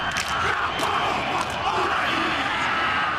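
Loud Maori haka chanting from a large group of voices, shouting forcefully in unison without pause, with sharp percussive foot stamps on the ground and rhythmic hand slaps on the body punctuating the dense, sustained chant.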